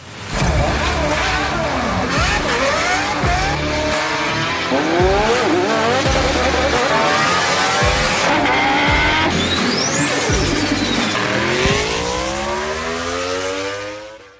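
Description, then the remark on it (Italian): A loud, continuous montage of racing car sounds: engines rev up and down again and again, with screeching tire squeals and skids, and nobody speaking. “Ora sigla e poi vi lasciamo a questa fantastica testimonianza.”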